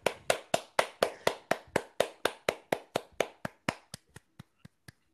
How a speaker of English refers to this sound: Right. Sorry for uh, ruining your clapping,